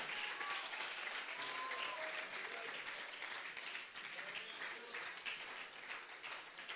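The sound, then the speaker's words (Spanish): Sustained, dense applause from a crowd giving a loud round of applause to the Lord, a steady wash of many hands clapping at once that stays loud for the whole stretch, with faint voices and whistles mixed in. “Dios te bendiga, dámelo un aplauso fuerte, pero bien fuerte al Señor.”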